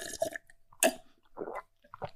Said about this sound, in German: Hab keine Hose an, ich sitze im Boxershot hier und ich nehme jetzt noch einen tiefen Schluck aus meinem Glas Wasser, weil sonst bin ich dehydriert.